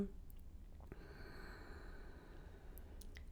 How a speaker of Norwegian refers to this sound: Og sammen skal vi ta tre dype pust for å vende tilbake igjen. Så pust dypt inn gjennom nesen og ut gjennom munnen. Inn gjennom nesen.